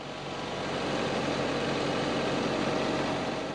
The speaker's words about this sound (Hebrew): עכשיו, תכירו, זה המנוף, והרעש שלו גרם לי להתקרב. האנשים עם המנוף חנו ממש ליד התחנה שלנו, תחנת גלי צה"ל, ונראה שיעדם הוא הבניין הסמוך.